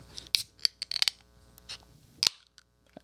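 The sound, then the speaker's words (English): The tab of a BrewDog Hazy Jane Peach beer can is worked open: a run of small metallic clicks and scrapes, then one sharp crack with a brief fizz. A faint hum sits underneath, and no one speaks. “Okay, here's mine. Um, if I get the tab here, I don't want to.”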